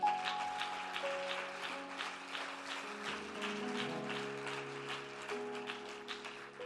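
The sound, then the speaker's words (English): A church audience in Paris, Texas, claps for the Lord steadily for several seconds, a dense patter of many hands while sustained organ chords hold underneath. No one speaks. “If you love the Lord, why don't you give that hand clap to him right now?”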